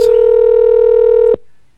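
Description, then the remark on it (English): A single steady electronic phone ringing tone of an outgoing call to a guest buzzes loudly for just over a second, then cuts off abruptly into near silence. No voices are heard. “oh, we're ringing not going to be a picture though. I'm trying to get your guest.”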